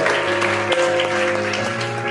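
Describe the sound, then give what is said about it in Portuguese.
A church audience claps steadily for about two seconds to applaud the Lord, a dense, sustained wash of many hands, with a steady tonal backing of music or keyboard underneath. “Você pode aplaudir o Senhor.”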